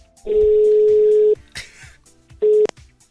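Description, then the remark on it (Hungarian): A telephone ringback tone sounds on a call: a long, steady, loud beep lasting about a second, a pause, then a second beep that cuts off short, with faint voices murmuring underneath. “Kezdjük a tárcsázást. Figyelj, itt a telefonom, nem csalás, nem ámítás.”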